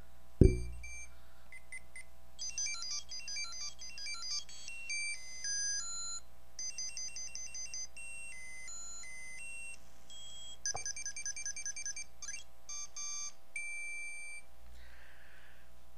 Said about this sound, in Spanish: ¿Lo recuerdan? Puede ser que sea un poquito confuso, ¿no? Porque, o sea, no me acuerdo como de todos los sonidos, pero es del famoso Tamagotchi.